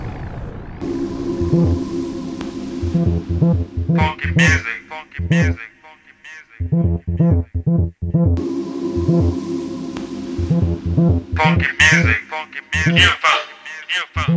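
A house music track plays, with a pulsing bass-heavy beat and a looping, filtered vocal hook that repeats in two near-identical cycles, loud and steady throughout.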